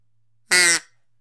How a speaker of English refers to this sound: So duck call to Elsie, a long overdue duck call.